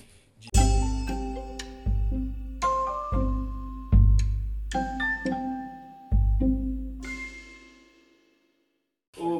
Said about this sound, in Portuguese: tocou o telefone. É, tocou o telefone.